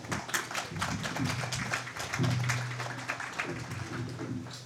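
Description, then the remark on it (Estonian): An audience applauds steadily as Piret Hartman, deputy secretary general of the Ministry of Culture, is called to the stage, a dense wash of many overlapping claps that holds fairly even in loudness for several seconds, with a faint low hum beneath it. “aplaus.”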